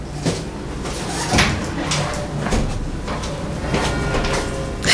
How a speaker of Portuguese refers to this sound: Vou fechar tá a porta.